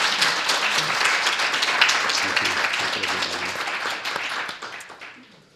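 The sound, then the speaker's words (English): A crowd applauds the event's assistants and staff who organised and hosted the evening, in a dense, steady wash of many hands clapping, holding strong for several seconds before thinning and fading out at the end. “Let's give them a, a round of applause.”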